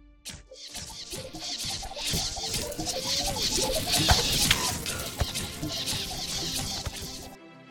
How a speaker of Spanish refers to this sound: Pero de pronto una lluvia de flechas cayó sobre ella y tuvo que cubrirse rápidamente con su escudo.